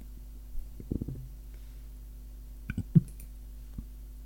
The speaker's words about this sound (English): I just love I love how I get the hiccups every time I do a podcast these days. I love it.